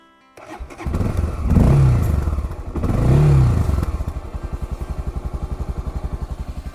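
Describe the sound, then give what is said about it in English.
A motorbike engine starts abruptly as the key is turned, revs up twice in rising and falling swells, then settles into a steady, loud, rhythmic putter. No one speaks. “Alright, here's the bike. I'm back. Pop my phone on the little fella. Turn the key and continue to explore.”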